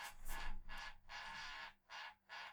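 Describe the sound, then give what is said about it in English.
A Fitbit fitness tracker wristband alarm goes off, a harsh raspy buzzing in repeated bursts of uneven length, fairly quiet, with no one talking over it. “That's my Fitbit. I don't know why it's going. Why it's the alarm's going off now.”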